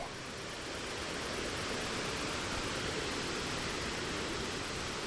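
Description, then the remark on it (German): A steady, dense roar of rushing waterfall, loud and unbroken throughout, with a broad hiss filling the whole range and no voices or other sounds. “Es führt sie einen schmalen Pfad entlang bis zu einem Wasserfall.”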